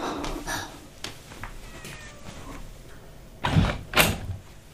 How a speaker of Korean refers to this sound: 아기 고양이다! 아구넌 누구니? 아구아구아구 귀여라.